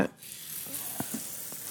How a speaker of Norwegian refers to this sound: Min erfaring er at det slutter å bruse når all margarin er vekk. Det er ikke helt riktig. Ikke helt riktig, nei. Det frester litt lenger. Eller bruste. Der er det klart. Ferdigbrust.